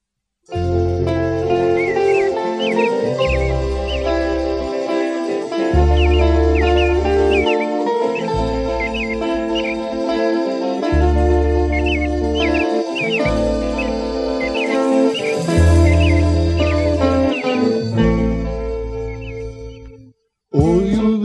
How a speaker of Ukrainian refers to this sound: Пишне в садочку, там там соловейко щебетав.